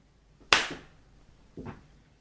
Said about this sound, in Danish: Ja, nej, okay, det virker også super dårligt på lyd, men det er fordi, man sådan nærmest sådan slider hånden hen, mens man klapper sådan agtigt.